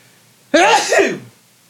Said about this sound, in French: C'est sûr que c'est sûr et certain que que je vais éternuer.